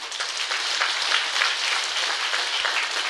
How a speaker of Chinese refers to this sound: 是的， 鼓掌。